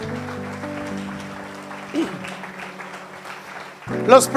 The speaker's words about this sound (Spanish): Todo central dice amén y amén. Le podemos dar un aplauso a nuestro Dios.